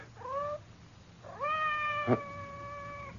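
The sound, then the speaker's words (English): A cat meows twice outside a door, first a short rising cry, then a longer drawn-out wail that holds steady, with a faint tap partway through; fairly quiet, with no one talking. “It sounded like Madame's cat, Francois.”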